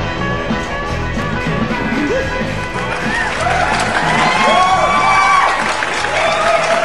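Loud crowd applause and cheering fill the whole clip, with rising whoops and shouts swelling in the second half over a dense, steady roar of clapping.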